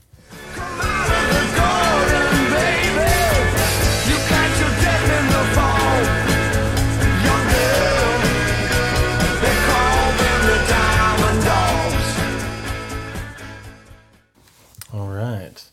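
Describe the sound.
A loud, dense rock song played as a quiz clue, with a singing voice over driving guitars and drums, plays steadily for about fourteen seconds, then cuts off abruptly, followed by a brief final burst.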